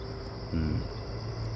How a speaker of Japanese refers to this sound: うんでまあまあ、えー、虫も今鳴いていたりね